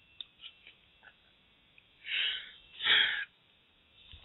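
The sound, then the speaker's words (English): A short sharp sneeze by a person sitting at a computer desk, preceded by a quick breathy intake, fairly loud against an otherwise quiet background with a few faint clicks. “Excuse me. God bless you.”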